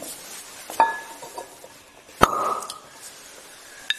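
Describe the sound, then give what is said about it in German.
A cork pops out of a bottle of Bordeaux wine opened for a tasting, once with a sharp, hollow burst midway through, surrounded by a few light glassy clinks and faint handling noise. No one speaks. “Schöner, ein schöner Plop.”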